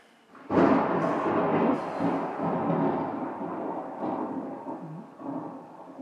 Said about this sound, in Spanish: escuchó cerca ese trueno. escuchó potente.